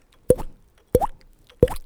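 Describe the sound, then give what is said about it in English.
A voice imitates a drop of sweat dripping off someone's face and landing in an eye, making three crisp mouth pops spaced evenly apart, each a sharp hit followed by a quick upward-bending bloop, with no talking. “freaking Robert Perlman, sweat dripped off his face, landed right in my eye, dude.”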